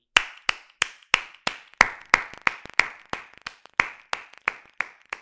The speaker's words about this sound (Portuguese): Uma salva de palmas.